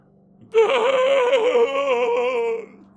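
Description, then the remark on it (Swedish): A single sustained, strained vocal groan from a man with his head thrown back and mouth wide open, with a wavering pitch and a rough, throaty edge, loud, lasting about two seconds before cutting off. “Och du kan höra ett ljud, ett obehagligt strubljud ekar ifrån honom.”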